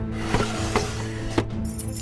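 Rummaging with a few sharp metallic clinks, like keys jingling as things are shifted around in a table drawer while a woman searches it for the key to a locked door, irregular and moderately loud, with no one talking.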